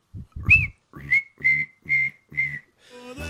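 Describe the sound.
A person whistles in five short, evenly spaced bursts, each a steady high tone, imitating the buzzing of cicadas, ending with a brief scratchy noise. No talking.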